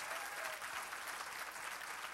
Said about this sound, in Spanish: Dale fuerte el aplauso al Dios poderoso si quieres.